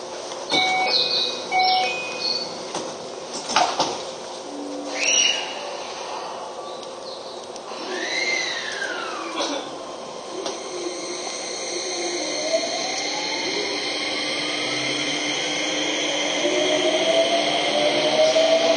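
A Keio 5000 series commuter train running on the Motoyawata to Hashimoto route, with a steady rumbling roar and electric motor whines sweeping upward in pitch as it accelerates, plus a few sharp clanks early on. No one speaks.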